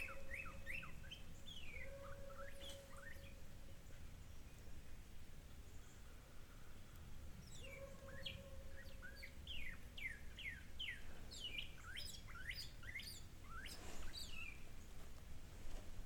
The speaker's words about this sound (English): getting some really good recordings of Cardinal songs right now.